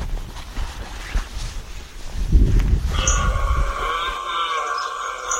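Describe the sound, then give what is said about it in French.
At night, a drawn-out, moaning call of a stag deer belling in the distance rises after a few seconds of low wind and rustling, then holds as a sustained, faintly wavering bellow to the end. “Allez, on avance à la recherche du cerf qui brame au loin.”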